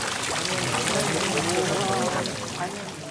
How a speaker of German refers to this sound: Heute erinnert daran der Brunnen, auf dem zwischen Wasser speienden Fischen der angelnde Fritze Bollmann sitzt